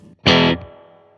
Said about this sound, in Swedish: Det är ett snyggt reverb tycker jag. Jättefint.